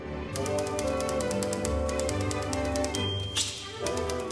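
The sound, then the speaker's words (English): Rapid, steady clacking of typewriter keys, clear, repeating in an even rhythm for several seconds over a low sustained musical background, with a brief brighter burst near the end. “Because the arrival of the typewriter in the late 19th century presented enormous competition for handwriting.”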